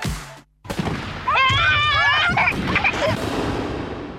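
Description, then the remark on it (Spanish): Fireworks bang and crackle, a sharp burst followed by a brief hush, then rapid popping mixed with high, wavering whistling tones that continue loudly to the end. “En estas fiestas, Pirotecnia Cero, Municipio de Morón, Corazón del Oeste.”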